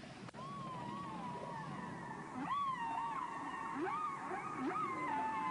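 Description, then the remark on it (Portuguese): Humpback whale song: long, sliding tonal moans and rising whoops with harmonic overtones, repeating in phrases over a steady underwater hiss, fairly loud and continuous. “Se eu imaginar que as canções das baleias corcundas são cantadas em uma linguagem tonal, então o número de bits de informação em uma canção é mais ou menos a informação”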